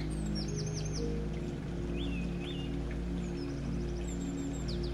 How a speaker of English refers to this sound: Listen to those birds. Birds wake up and sing and have joy every day.